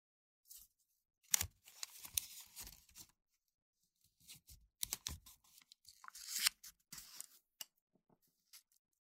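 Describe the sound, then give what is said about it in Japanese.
Crisp bursts of masking tape being torn and pressed flat, with the excess tape folded outward, while paper cutouts are stuck on. Several rustling, crackling stretches separated by short pauses, ending with a few faint taps. No voices. “養生テープからはみ出した分は外側に折り曲げる。”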